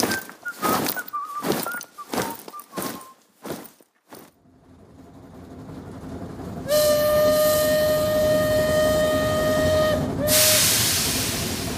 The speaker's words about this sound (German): Das neue Jahr steht bevor und Ernst sitzt in einem klappernden, zugigen Waggonabteil. Die Gesichter, die ihm gegenüber sitzen, sind genauso jung wie seins. Gießen, Koblenz und Trier rasen an ihnen vorbei.